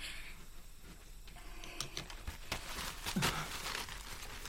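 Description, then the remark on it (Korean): Soft brushing and scratching of a brush on paper as a man's face is drawn, made of quiet irregular strokes with faint papery rustles, heard alone without any voices. “거기 종이에 그자의 얼굴을 그려보아라.”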